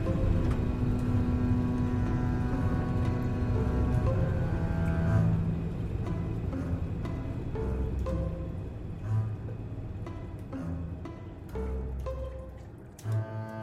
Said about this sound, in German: Ich höre nur das Brummen der Triebwerke, sonst nichts.